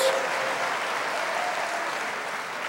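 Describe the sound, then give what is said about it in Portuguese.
An audience breaks into steady, dense applause for the Lord during a church service, many hands clapping at once in a continuous wash of sound that holds at an even loudness throughout, with no voices standing out. “Só quem recebe, aplauda o Senhor.”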